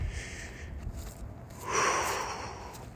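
A single deep, audible breath, airy, drawn in and then released, swelling midway through before slowly fading, with no talking.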